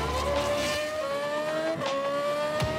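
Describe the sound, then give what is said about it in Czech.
The V8 engine of a Formula 1 single-seater revs high and steady during filming in Prague, against the backdrop of Prague Castle or Charles Bridge, its pitch climbing gradually with a brief dip and a sharp burst near the end, loud throughout with no talking. “osmi osmiválec, pobíhající mechanici, to vše v kulisách Pražského hradu či Karlova mostu.”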